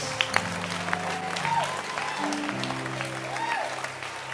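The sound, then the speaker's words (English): A crowd claps for Jesus steadily throughout, dense and continuous applause, with sustained musical tones and a faint voice underneath. “Clap your hands for Jesus.”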